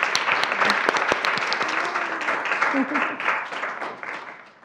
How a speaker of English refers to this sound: Let's give a round of applause for these panelists.